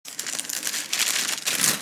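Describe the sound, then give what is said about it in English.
Thin paper rustles and crinkles continuously for a couple of seconds, fairly soft, as the pages of a worn New American Standard Bible are turned and flipped, with no voices. “If, that's, if, if you hear the pages turning, that's because I've got a, a New American Standard Bible here that is, uh, I've had this thing for a number of years and it's kind of worn out here.”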